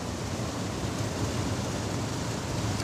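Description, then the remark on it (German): Steady rushing water flowing continuously at the end of a secondary clarifier in a wastewater treatment plant, a broad, even wash of noise like water spilling over a weir, constant with no talking; the treated water then flows out to the Danube. “Also hier sind wir jetzt am Ende des Nachkehrbeckens.”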